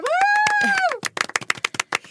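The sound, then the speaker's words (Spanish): Audience applause: a held, rising-and-falling whoop sounds over rapid clapping for about a second, then the claps thin out into loud, irregular individual smacks. “Sí, un aplauso para”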